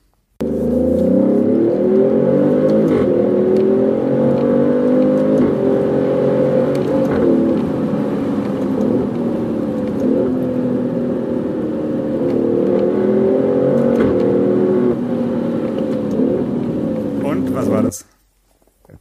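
A car engine revs loudly and steadily on a mountain pass for about seventeen seconds, its pitch rising and falling in strong harmonic sweeps, continuous before cutting off abruptly.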